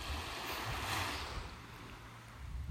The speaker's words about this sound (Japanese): もうそろそろねあのこの波打ち際を離れて道路の方にね戻ろうかななんて思ってみたりいやでも海の音はね非常にいいと思います